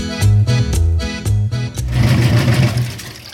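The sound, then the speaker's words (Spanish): A washing machine churns loudly with a steady, rhythmic mechanical thumping and humming, then gives way to a denser rushing whir as the cycle ends. No one speaks. “Qué bien, ya salió la ropa de la lavadora.”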